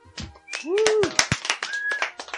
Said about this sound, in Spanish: tía, gracias, un aplauso.